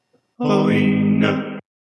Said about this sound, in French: J'aime tellement te mettre ce jingle.